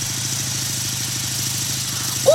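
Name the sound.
motorcycle engine running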